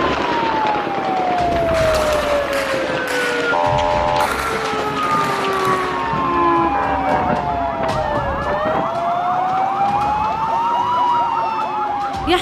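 An ambulance siren wails continuously, its pitch sweeping up and down in long glides, loud amid busy street noise, with some indistinct voices underneath.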